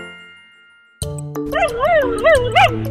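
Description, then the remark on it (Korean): A dog gives a sharp yip, then several whiny, rising-and-falling whimpers in quick succession, after a soft chime fades out at the start. “살짝 항의할 때도 어? 크게 한 소리 할 때도 하고 싶은 말이 많을 텐데 다 알아듣진 못하는 집사들의 선택.”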